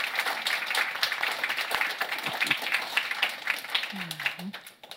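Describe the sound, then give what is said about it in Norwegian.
An audience applauds steadily for about five seconds to congratulate the authors of a book, a dense patter of many hands clapping at a fairly even level, with a brief voice sound near the end as it starts to fade. “Kanskje en liten applaus der.”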